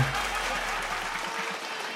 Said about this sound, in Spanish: Un aplauso a la Espora Loca. ¡Qué chulada! ¡Qué chulada! ¡Qué buena producción!